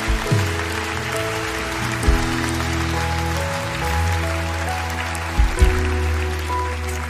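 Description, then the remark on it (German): A crowd at a Christian worship service applauds steadily for about seven seconds after a prayer, for those who raised their hands, a dense, even wash of clapping, with low sustained musical tones humming underneath and a few brief swells. “Wollen wir all denen, die ihre Hand ausgestreckt haben, einen mächtigen Applaus geben.”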